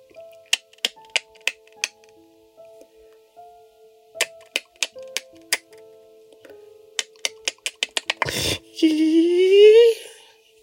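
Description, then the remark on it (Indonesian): A voice imitates the clicking call of a house gecko (cicak): sharp clicks start sparse, then quicken into a rapid run, ending in a breathy burst and a tone sliding upward in pitch. “Dan decakan itu mulai berdecak cepat dengan nada yang meninggi.”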